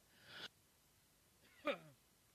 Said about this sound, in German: Entschuldigung, Was? musste wieder husten.